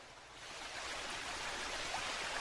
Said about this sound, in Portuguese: Isso aqui é a cachoeira, irmão.